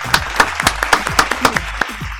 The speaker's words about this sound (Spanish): Fuerte el aplauso de nuevo